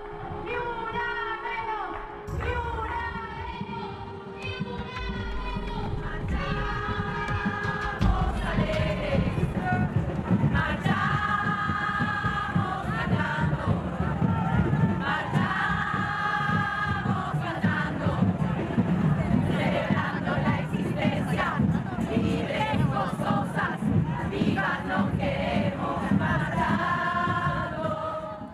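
A large crowd of protesters shouts a chant, many voices rising together in repeated, rhythmic phrases that stay loud and dense throughout.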